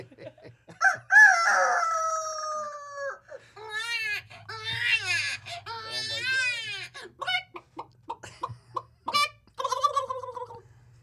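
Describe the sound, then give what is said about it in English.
A person imitates a rooster crowing with a loud, drawn-out cock-a-doodle-doo, rising and falling in pitch, followed by a few shorter crowing bursts and some laughter. “Now you're being cocky.”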